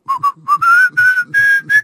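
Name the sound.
person whistling a melody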